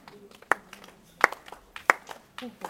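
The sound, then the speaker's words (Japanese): Hand claps of a shrine ritual at Usa Jingu, where worshippers clap four times with palms together and the right hand slightly lowered: three sharp, crisp claps spaced evenly, followed by a softer fourth, over a faint murmur of background noise. “宇佐神宮では四つの拍手をします手を合わせます右手を少し下げて四回叩いていただく”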